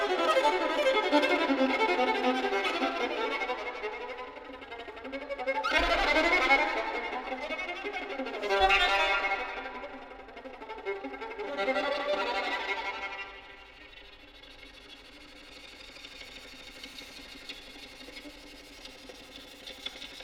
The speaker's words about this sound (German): Da haben wir, glaube ich, den Bogen auf dem Korpus der Geige gehört. Bei der zweiten der drei Violinetüden von Jörg Wiedmann mit Franziska Hölscher